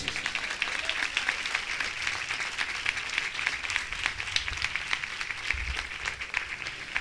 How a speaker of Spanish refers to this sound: Dele palmas a Dios.